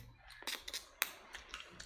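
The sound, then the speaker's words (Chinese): A fork that was badly placed in a bowl tips over and falls to the floor, clattering: a few sharp, bright metallic clicks and taps spread over two seconds, ending in a louder clack, with no voices. “每次你哥用这个叉子的时候，都是因为把叉子放碗儿里没放好，翘过去，是这意思吧？”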